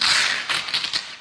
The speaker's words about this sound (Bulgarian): Това е шума на, това е шума на велкрото.